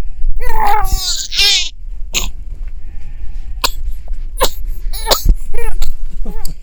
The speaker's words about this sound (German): Aber das ist genau dieses Husten habe ich letztes Mal angesprochen.